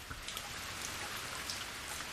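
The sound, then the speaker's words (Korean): Steady rain falling in Gimhae, a dense, even hiss of drops with scattered patters on a surface, continuous and fairly soft throughout, with no voices. “출발할 때는 맑았던 하늘에 어느새 먹구름이 끼고 영선 씨가 김해에 도착할 즈음에는 비가 내리기 시작했습니다.”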